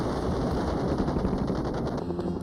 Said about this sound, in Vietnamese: Cảnh tượng đội hình hàng chục chiếc UH-1 gầm rú trên bầu trời, xả đạn xuống mặt đất trong các cuộc hành quân đã trở thành phần không thể thiếu tại Việt Nam, đại diện cho công nghệ vượt trội của Mỹ.